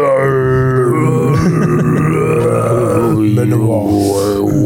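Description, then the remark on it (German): A voice imitates Mongolian folk throat singing: a loud, continuous low drone with buzzing, shifting overtones, held close to the microphone for several seconds with no words. “Hast du gehört? Ne? Mongolische Volksmusik.”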